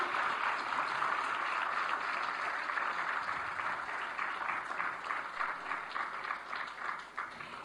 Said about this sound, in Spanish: Entonces quisiéramos reiterar, por favor, los aplausos al profesor Manuel.